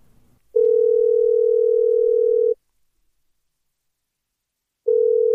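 A telephone ringback tone sounds loud: one long steady beep lasting about two seconds, a pause of silence, then the next beep begins, with no voices, as a woman in an audio drama calls her boss.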